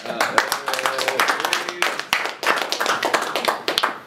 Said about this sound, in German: So, das war, haben wir uns einen eigenen Applaus verdient.